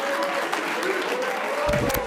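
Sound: round of applause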